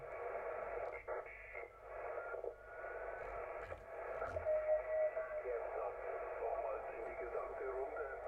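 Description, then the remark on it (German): Steady, band-limited shortwave static hisses and crackles as a receiver is tuned in search of a station, with DSP used to adjust the sound and reduce the noise; shifting noise, brief whistling tones and faint garbled voice-like fragments are buried in the hiss. “Es geht ja darum, auch den Klang ein bisschen das anzupassen, das Rauschen wegzukriegen.”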